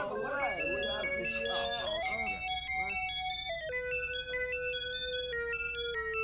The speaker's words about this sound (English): It's a music box. As the card says congratulations. Oh, cute. I like. You make it play for me.